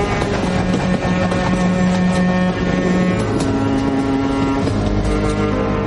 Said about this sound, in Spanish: El tren se vuelve a poner en marcha.